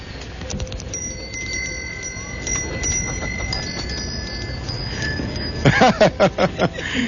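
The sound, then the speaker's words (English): Amplified, mechanically operated temple bells at the Thailand exhibit of a fair chime with lingering metallic tones over a busy background hum, then a quick, rhythmic run of about five louder strikes near the end. “He's a genuine, uh, mechanically operated, uh, uh musically uh, amplified temple bells here at the Thailand exhibit”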